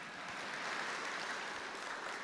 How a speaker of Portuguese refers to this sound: Vamos aplaudir ao Senhor essa beleza poderosa.